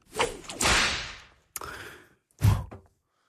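Three sharp whip cracks in quick succession as a sound effect to start a horse, each a bright snapping burst with a short swishing tail, loud with brief silences between them and no talking.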